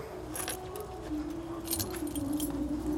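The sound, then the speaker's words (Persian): Car keys jangle in several quick bright metallic bursts as they are passed from hand to hand, handed over by a father, over a low steady background hum. “ببخشید پدر جان، کلید ماشین لطف میکنی؟ بیا عزیزم”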